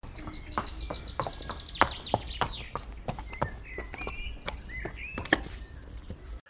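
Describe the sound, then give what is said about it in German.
A young goat's hooves patter quickly over hard ground as it runs home, in a rapid, uneven run of sharp clicks, fairly loud, while birds chirp and twitter in the background. “Da musste das Geißlein nach Hause laufen und Schere, Nadel und Zwirn holen.”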